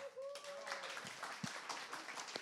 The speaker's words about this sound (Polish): I jeszcze raz prosimy o wielkie brawa.